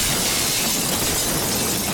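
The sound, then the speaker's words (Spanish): A loud crash of shattering glass and splintering wood as office windows and a desk are destroyed, a dense continuous burst of breakage filling the whole two seconds with no voices. “Pero si destrozó usted el escritorio y los cristales del despacho”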